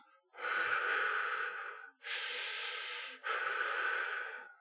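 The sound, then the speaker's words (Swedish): A voice imitates the heavy breathing of an unseen creature, heard from a distance: three long, loud, raspy breaths in quick succession, with no talking. “Ni tycker en ana en närvaro om något slag. Och ni hör de här andetagen.”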